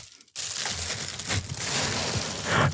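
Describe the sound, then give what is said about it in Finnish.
Continuous crinkling and rustling of a fancy package being handled and torn open with IKEA scissors, fairly loud, with irregular crackles and scrapes over nearly three seconds and no voices. “my god, mä siis miten hieno paketti. Mä otin tota sakset”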